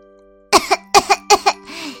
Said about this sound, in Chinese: 一只母鸡声音沙哑地说，然后冲着小狐狸的耳朵大声的咳嗽起来。